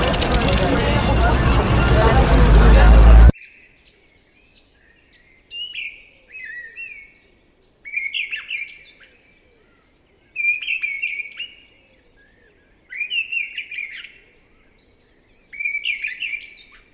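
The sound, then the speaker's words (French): After a few seconds of loud rushing wind over the summits, a European robin sings alone and clear in six short warbling phrases separated by brief pauses against a quiet background. “tu écoutes le vent qui caresse là-haut les, sommets, le rouge-gorge, là”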